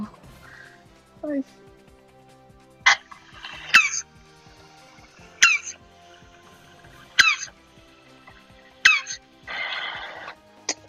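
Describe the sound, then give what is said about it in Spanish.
Repeated short, harsh grunting cries from tortoises mating sound in a steady series, roughly every second or two, each a sharp strained burst with breathy hissing between, fairly loud with no talking. “¿Ustedes han escuchado el sonido de una tortuga?”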